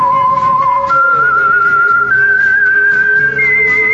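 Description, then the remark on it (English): A lone whistled melody, the theme of the classic radio show The Whistler, rises in sustained, steady notes, stepping upward in pitch over a low musical backing, clear with no talking. “The Whistler.”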